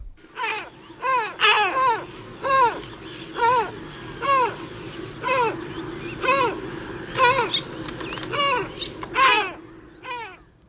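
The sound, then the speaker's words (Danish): Deep, gruff great black-backed gull calls repeat in a steady series of about a dozen harsh, downward-bending cries, loud, over a low background rumble with no talking. “Men jeg synes også lige, vi skal høre Svartbanens lyd, fordi man kan næsten høre, at det er den.”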